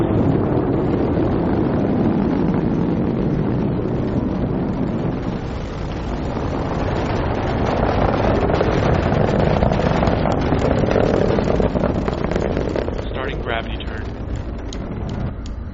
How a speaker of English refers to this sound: Nine, eight, seven, six, five, four, three, two, one, zero. Falcon 9. Falcon 9 has cleared the tower. Starting pitch kick.